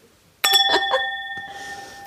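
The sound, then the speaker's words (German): Drinking glasses clink together in a toast, a quick cluster of four or five bright taps followed by a clear, high ringing tone that hangs on and slowly fades, with no talking. “Sind sich noch nicht ganz einig, die Gläser.”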